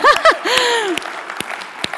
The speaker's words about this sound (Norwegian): 16. gang! Å, ja, det fortjener en klapp. Ingen tvil om det.